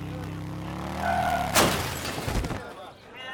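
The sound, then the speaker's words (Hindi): A steady motorbike engine drone gives way to a sudden loud crash as the motorbike, a father carrying his daughter on the back, hits a cycle rickshaw on the road, followed by clattering debris and a second thud before things settle. “अचानक बाइक एक cycle rickshaw वाले से जा पड़ी”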